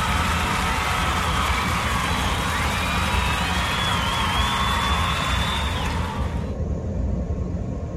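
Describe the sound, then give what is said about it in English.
A dense roar of applause and cheering from a large crowd, loud and continuous, with the brighter clapping texture dropping away shortly before the end. “And I'd like to give you all an applause.”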